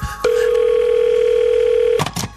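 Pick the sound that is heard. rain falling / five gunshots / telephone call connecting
telephone call connecting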